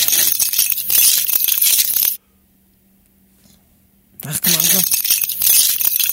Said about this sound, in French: Stéphanie qui a un trousseau de clés digne d'un gardien de prison